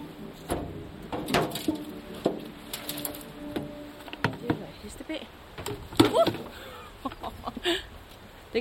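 Someone mucking out a horse stall: irregular scrapes, knocks and clunks of a tool against the floor and walls, close by, with a quiet barn ambience between the strokes.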